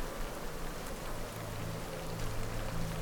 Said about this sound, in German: Es tröpfelt immer noch fein und der Regen macht ein leisliches Geräusch auf dem Ballon.